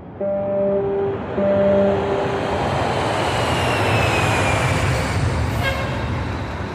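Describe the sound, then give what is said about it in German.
Two short horn blasts sound first, then a steady, loud roar of an airplane passing overhead fills the rest, with a faint whine sliding through the noise. “Sie reisen mit Schiff oder Flugzeug zum Beispiel von China nach Europa.”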